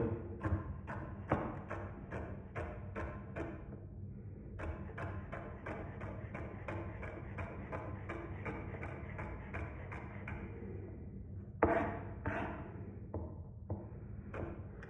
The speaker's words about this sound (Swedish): Jag gillar att ha ganska stora bitar selleri i min köttfärssås. Men sen är det bara att hacka på. Så här.